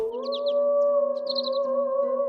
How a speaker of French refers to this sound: Quand soudain, il dénicha un œuf plus brillant que les autres. On aurait dit une toute petite étoile. Mais plus étonnant encore, l'œuf chantait. Une minuscule mélodie d'oiseau qui lui disait quelque chose.